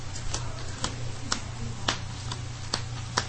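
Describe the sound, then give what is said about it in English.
A deck of playing cards being shuffled, heard as about seven sharp, crisp card snaps at a fairly steady pace over a low, constant hum, with no talking. “Okay, we're gonna go ahead and shuffle them up right here.”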